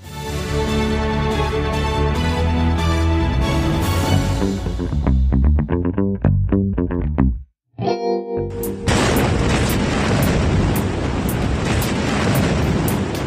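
Tonal, stuttering sounds break off into a brief silence, then a massive explosion at the port of Beirut, Lebanon, around 6 pm local time, hits with a sudden loud, broad, distorted roar that keeps rushing and rumbling to the end, with no talk.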